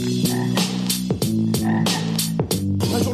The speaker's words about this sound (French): Les crapauds.